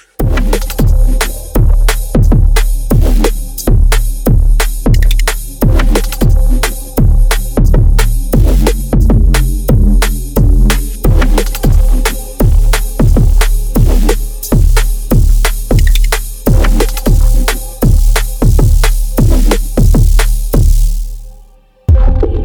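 An unreleased dub track by a Brazilian producer plays on its own, driven by a deep, heavy bassline and steady, evenly spaced beats, with echoing layers above; it stays loud throughout before cutting out briefly near the end.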